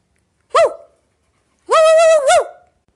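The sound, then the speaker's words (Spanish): Someone imitates a barking dog as the finale of a stage show, with one short, sharp yap followed by a longer, drawn-out bark that bends in pitch. The sound is loud, with no other sounds. “Y ahora, …, para finalizar, a ver cómo imitas a un perro.”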